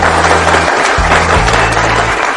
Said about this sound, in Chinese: 你要觉得有的话，你可以鼓鼓掌。